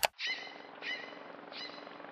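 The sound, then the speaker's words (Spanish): A nocturnal bird calls three times in a steady, evenly spaced series of bright, buzzy notes over a constant low night-time hum, after a sharp click at the very start, recorded at a camp in Chiribiquete on 31 December 2020. “Campamento 1. Chiribiquete. Grabación de aves nocturnas, toma 3.”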